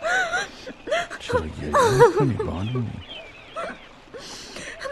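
A woman cries with shaky, wavering whimpers and breathy gasping sobs coming in uneven bursts, louder in the middle before trailing into softer sniffles.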